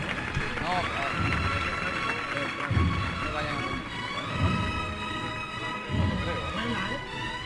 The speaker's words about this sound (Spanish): Tarda, tarda en arrancar, pero ahí tienen el aplauso premiando a la labor, a esta especial composición musical también.